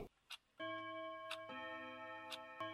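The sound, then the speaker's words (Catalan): A living-room wall clock chimes with sustained, ringing tones that overlap and linger, while sharp, regular ticks sound about once a second in the quiet of a house at nightfall. “Les campanades del rellotge de la sala irrompen en el silenci.”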